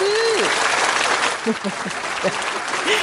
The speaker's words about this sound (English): and the crowd goes wild.